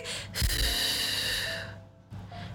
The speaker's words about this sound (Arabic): يلا قبل ما نبلش دايما دايما فضوا جسمكم من كل الهواء لأنه نحن دايما في هواء بجسمنا فمنفضيه